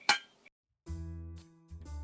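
A single bright, ringing clink of glasses touching in a toast at the start, crisp, followed by a faint tap and then low, droning sounds with no speech.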